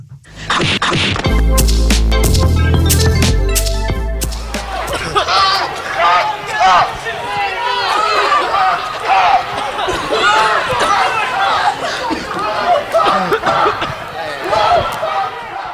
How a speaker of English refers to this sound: And that is the sound of protesters being pepper sprayed in the Tar Heel state of North Carolina. Somewhere between 8 and 12, it seems, were arrested.